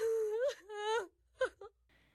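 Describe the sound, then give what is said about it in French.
A young woman sitting on a stone weeps, letting out two long, wavering wails in quick succession, followed by a couple of short, choked sobs that fade into quiet breathing. Fairly loud, with no other sounds. “Elle s'assit sur une pierre et se mit à pleurer toutes les larmes de son corps.”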